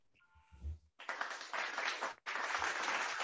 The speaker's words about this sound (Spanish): Un aplauso, por favor, para, ella.